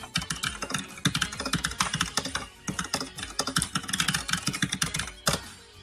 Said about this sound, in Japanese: キーボードの音が、え、え、MS-DOS っぽい。あ、俺のキーボードですかこれゲーミングキーボードですよ。こんな感じで。音がね、あの、いい、いいって言いますね。音がさ、ゲーミングキーボード。